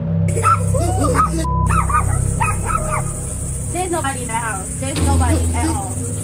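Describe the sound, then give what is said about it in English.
Two small puppies in a home yip and bark in quick, high-pitched bursts, some whining, over a steady low hum. “A strange shadow can be seen quickly moving back and forth in Sarah's neighbor's home, freaking out everyone and even seeming to upset their two puppies.”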